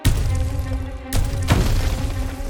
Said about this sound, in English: Giganotosaurus's palm slapped the ice heavily.